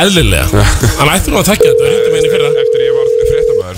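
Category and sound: signal or alarm, phone ringing tone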